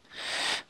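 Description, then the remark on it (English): A single quick sneeze, a soft breathy burst of air lasting about half a second, fairly quiet and isolated with no talking over it. “bless you”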